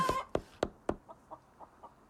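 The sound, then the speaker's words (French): A chicken clucks in a quick series of short, sharp calls, the first few loud, then softer clucks trailing off in an even rhythm, with no one speaking. “On pourrait entretenir un jardin collectif, ou construire un HLM à poule urbaine,”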